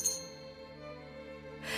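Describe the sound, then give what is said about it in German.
A bright bell rings out on Christmas Eve, its clear metallic tone lingering and slowly fading before a second strike lands near the end. No voices accompany it. “Äh, hat es da nicht schon geklingelt?”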